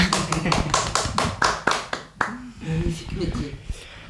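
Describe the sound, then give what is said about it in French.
An audience applauds a person who has just shared about a book, with crisp, fairly distinct claps in a steady rhythm for about two seconds, then the clapping thins out and people begin talking. “Très bien, on peut l'applaudir, oui, si tu veux.”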